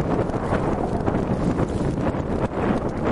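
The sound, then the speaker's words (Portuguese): Steady, loud wind buffeting a microphone outdoors by the sea as the tide goes out, a continuous low rumbling roar with gusty surges throughout and no voices. “Tem, agora vai fazer mais barulho do vento, né?”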